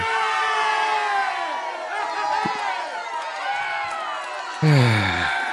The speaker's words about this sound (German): Meine Damen und Herren, fürs Nichtstun bekommt man hier Applaus.